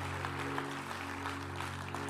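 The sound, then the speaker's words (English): Steady audience applause during a sermon, a dense wash of many hands clapping at an even level for about two seconds, with no voices on top. “And, I, and listen, listen, hold the applause because I'm not here for your applause either.”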